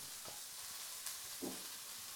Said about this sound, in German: So, während das da drüben brutzelt, wir sind ja multitaskingfähig.